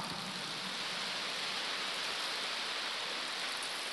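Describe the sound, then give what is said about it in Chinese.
A steady, dense wash of audience applause, many hands clapping at once into an even hiss-like roar that holds at a constant moderate level for the whole stretch, with no voices. “看到你们这么多的掌声，不讲又不好意思。”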